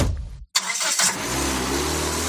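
A car engine cranks after a brief pause, catches with a rough burst, then settles into a steady, low idle rumble. No one speaks.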